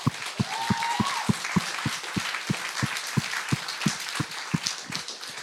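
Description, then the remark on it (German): Audience applause in a church service at Credo-Kirche, welcoming a person who has decided for Jesus, with steady, rhythmic clapping: sharp, evenly spaced claps over a dense wash of many hands. Moderately loud and sustained, with no one talking. “Und ich würde sagen, wir geben einfach mal einen herzlich willkommen Applaus für die Person, die sich entschieden hat für Jesus.”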